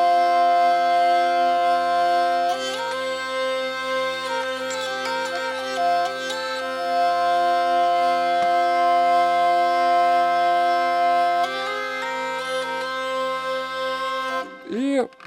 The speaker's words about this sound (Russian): Здесь мы ручкой приводим в движение бесконечный смычок туда-сюда вот так можно водить, но не обязательно. Можно вести за ручку смычок, круглый смычок, можно вести в одну сторону, он будет беспрерывно извлекать звук из трех струн.